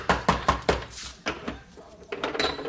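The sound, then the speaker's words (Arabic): Someone knocks on a door: a quick run of four firm raps, a brief pause, then two more, followed by softer shuffling and faint background noise. “تفضل يا خير دقاني قوي لهالدرجة تفضل تفضل”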